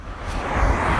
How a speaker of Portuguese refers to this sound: pelo barulho, pelo barulho dos carros. Eu estou numa estrada, eu acabei de correr